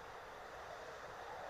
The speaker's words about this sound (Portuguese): Desculpe o vento frio, mas não tenho como evitar.